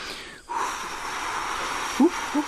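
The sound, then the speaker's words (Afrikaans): A steady, breathy rush of air blown through lips pursed as if to whistle, hissing fairly softly for about two seconds without becoming a whistle, with a couple of small puffs near the end. “Die mense sê soms dat op 'n stil nag as jy op die vlaktes van hierdie einste plaas gaan staan en jy tyt jou lippe asof jy wil fluit maar jy fluit nie jy maak net”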